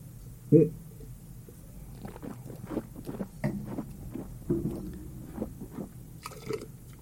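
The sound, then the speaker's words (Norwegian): Wet mouth sounds of wine being slurped and spat out during a wine tasting in a studio, with a sharp sputter near the start followed by a string of smaller slurps and gurgles. “Jeg kan bare skyte inn at eh, Når vi smaker her i studio, så spytter vi jo ut all vinden.”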